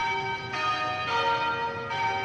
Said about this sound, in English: the church bells at St. George's Anglican Cathedral ring in tribute to Archbishop Desmond Tutu, who died yesterday at age 90.